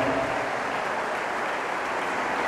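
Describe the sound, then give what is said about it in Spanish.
A church audience claps together for the Lord in sustained, dense applause, a steady wash of many hands, with no voices standing out. “Y esta iglesia te corona con fuertes palmas, Señor.”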